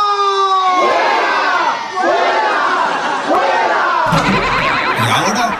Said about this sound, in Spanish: Un aplauso fuerte